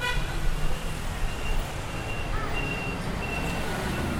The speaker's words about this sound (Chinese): 就好比说，像现在有一台大公车经过